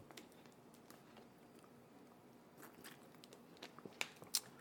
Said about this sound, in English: So being a hip hop head, uh, let me get some of this water right quick, man.